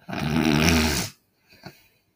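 A voice imitates the snoring of people asleep inside a cabin: one long, loud, rattling inhale lasting about a second, followed by a brief pause and a softer, breathy exhale, with no talking.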